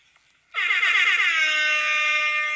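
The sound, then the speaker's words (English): A loud air horn blares after a brief quiet moment, holding one sustained, brassy blast with a slightly wavering pitch for about two seconds, with no talking over it. “Let me let me play my air horn again, please.”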